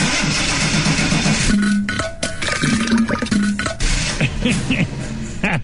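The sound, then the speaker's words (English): A motor grinds and whirs unevenly with a steady clattering rattle, as if a loose part is rolling around inside it; loud, with brief pulsing hums breaking through the noise. “yeah, it sound like something rolling around in the motor's come loose.”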